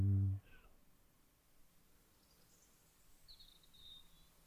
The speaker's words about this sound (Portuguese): Ouvimos os passarinhos.